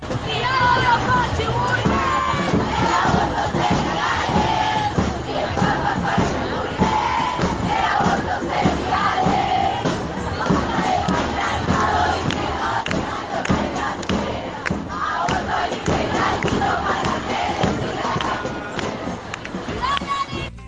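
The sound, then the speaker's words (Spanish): A large crowd at a street protest chants a song in unison outdoors, loud and continuous, with steady rhythmic thumps like drumming or stomping beneath the massed voices throughout. “ya estamos promediando este ranking de canciones de lucha y de alegría en las calles.”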